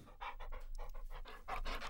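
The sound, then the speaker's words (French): A dog named La Truffe sniffs a dish of food and pants in quick, rhythmic bursts of breathy huffs, repeated steadily over a couple of seconds with no one speaking. “il vient faire quelque chose de précis. Renifler le plat.”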